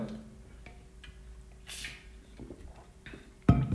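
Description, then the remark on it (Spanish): Someone quietly drinking water: a soft airy sip partway through, faint swallowing sounds, then a louder low bump near the end. No one speaks, and the background stays hushed. “Y también pues voy a estar como tomando agua constantemente, así que si hago una pausa, eh, imaginen que estoy tomando agua, ¿vale?”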